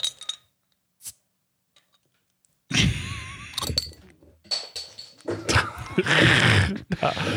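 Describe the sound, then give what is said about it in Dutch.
A brief quiet stretch with faint clicks, then a bottle of beer from a Tilburg brewery is opened and poured into glasses, with fizzing, splashing liquid and occasional glassy clinks. “maak hem jij maar eens even open, dan kan je eens even inschenken.”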